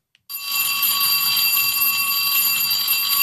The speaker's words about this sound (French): Et cette sonnerie, c'est la dernière fois qu'elle va retentir dans certaines écoles aujourd'hui. Une trentaine d'établissements vont fermer définitivement dans la Somme cet été.